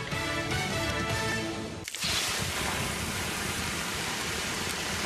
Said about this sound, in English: Hear that? The sound of water being poured on 800 degree rocks. If you were here in this sauna, you'd be so hot you wouldn't have the energy to move.